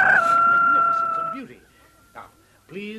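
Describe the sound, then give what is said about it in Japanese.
A loud, drawn-out rooster crow rings out for over a second, then fades as brief voices murmur and speak in the background. “鶏が鳴いた”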